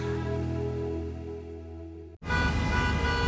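Car horns blare in a long, steady honk, then the scene cuts to dense morning rush-hour traffic noise with more honking over rumbling engines, loud, with no voices.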